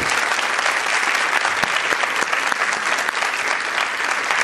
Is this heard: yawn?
no